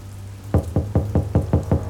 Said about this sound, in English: Without notable inspection of the outer grounds, the military police knocked on the door. No one answered.